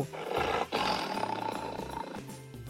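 A tiger roars loudly: a short burst, then a long, rumbling, sustained roar that slowly trails off. No voices.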